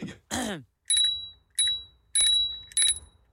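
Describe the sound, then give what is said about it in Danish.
A real bicycle bell rings four times, picked up by a phone lowered out of a window; each bright metallic ding sounds for a moment before the next, spaced roughly half a second apart, after a brief vocal sound at the start. “Ja, det er jo en rigtig ringklokke, det der jo.”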